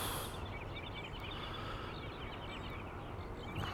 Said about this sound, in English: This modern world of things, you can hear it, the highway in the distance as a reminder of that world.